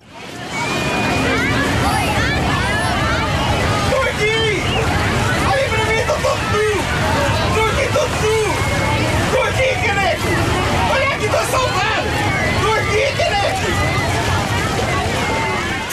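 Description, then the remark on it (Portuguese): A dense crowd hubbub of many overlapping voices played as a sound effect on a radio show, steady and loud throughout with a constant low rumble, with no single voice standing out. “Venha de lá o som da multidão.”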